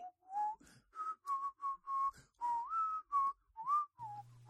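A person whistles a bright, melodic Disney tune in a quick series of clear, sustained notes with short gaps between them, fairly loud, with no talking.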